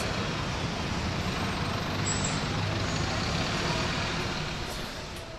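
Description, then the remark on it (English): A bus engine rumbles steadily, a dense continuous drone filling the whole stretch, with a brief hiss of air brakes partway through before the noise eases slightly at the end. “He's packing up all of his stuff in a rucksack and he's coming on the bus with us.”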